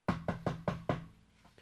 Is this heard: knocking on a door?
yes